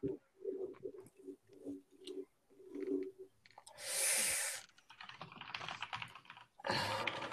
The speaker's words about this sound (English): Once again, he's typing with his big hands. Calm down with that, man.